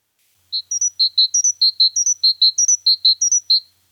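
great tit song

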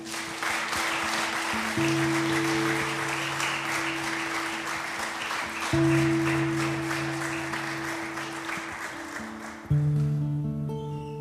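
applause

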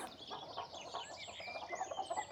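hen clucking

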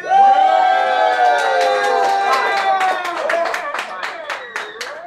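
crowd clapping and cheering

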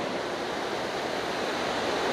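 rain falling

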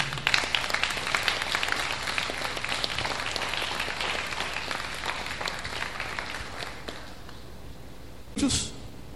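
audience applause

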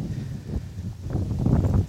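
strong wind outdoors

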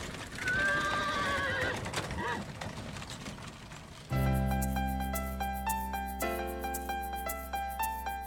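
horse-drawn carriage

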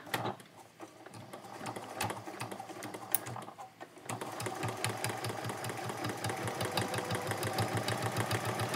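sewing machine stitching

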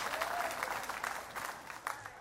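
audience clapping

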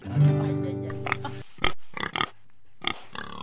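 pig oinking

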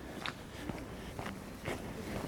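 footsteps walking outdoors

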